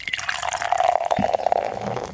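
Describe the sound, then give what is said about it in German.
Beer pours steadily into a glass, a continuous gurgling splash with a rising fill tone that runs for a couple of seconds with no talking. “Jetzt möchte ich ihn auch nochmal als Einschenkgeräusch.”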